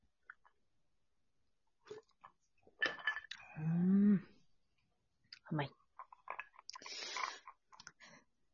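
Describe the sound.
Whisky glasses touch in a toast with a bright glassy clink, surrounded by small clicks and handling noises, while people murmur and talk.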